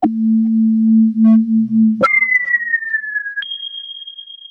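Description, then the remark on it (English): A short Moog synthesizer news sting: a low, steady electronic drone, then a sudden leap to a bright high tone that slides slightly downward before stepping up to a sustained piercing note. No voices. “Um, that's actually it's actually a Moog sound effect, if, if anyone uh, cares to know.”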